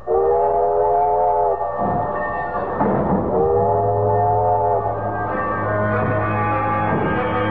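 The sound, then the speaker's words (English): A steam train rumbles along with a loud, sustained whistle that sounds in long blasts, broken by a brief pause, over steady chugging and rattling of the cars. “You got me on a railroad. First time I ever traveled any other way, save on my own legs or horses.”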